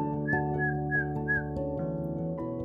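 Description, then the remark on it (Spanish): Someone whistles in imitation of the song of a tiny earth-coloured bird perched on a wire: four short, bright chirping notes in quick succession, each with a slight upward lilt, over a steady sustained tone. “Cantaba el pajarito,”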